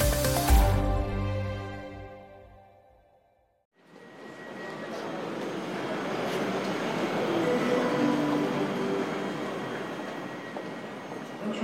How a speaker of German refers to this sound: Krakau Hauptbahnhof, Gleis 2. Gut ein Dutzend Reisende vertreten sich die Füße. Es ist kalt und feucht.